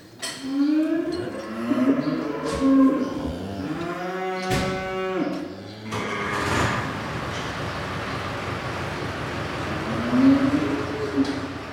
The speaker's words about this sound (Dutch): Nou, koeien blij.